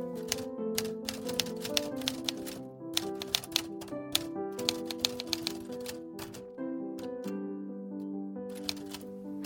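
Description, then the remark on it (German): Rapid, uneven clacking of a heavy typewriter's keys struck in bursts, each strike sharp, over a faint steady background tone, with brief pauses between runs of keystrokes, as an eight-year-old girl types a note in her children's room in 1922. “Sie nimmt die schwere Schreibmaschine vom Sekretär und bringt sie in ihr Kinderzimmer.”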